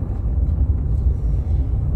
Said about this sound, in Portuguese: Ó, eu tô entrando num buraco aqui, aí tem um caminhão gigante e tem um trator. Essa área aqui é meio rural, então.